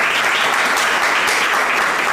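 Sustained applause from a crowd, a dense steady patter of many hands clapping at once, loud and continuous throughout with no voices standing out.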